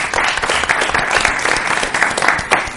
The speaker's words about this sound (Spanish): Está con nosotros la concejala del Ayuntamiento de Madrid, Romy Arce, que es peruana. Un aplauso.